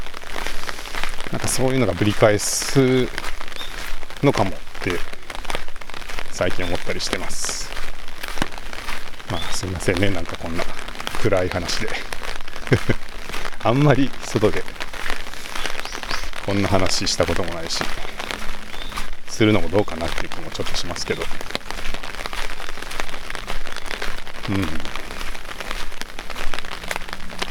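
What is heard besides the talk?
rain falling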